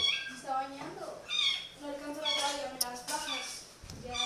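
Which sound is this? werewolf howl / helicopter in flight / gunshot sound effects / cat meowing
cat meowing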